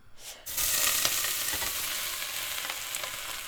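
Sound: shrimp sizzling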